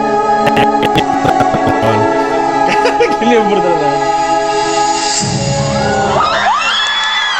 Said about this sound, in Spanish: Ah, empiezan los gritos.